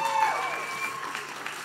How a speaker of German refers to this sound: Können wir jetzt mal einen großen Applaus geben für die Menschen, die schon hier vorne stehen?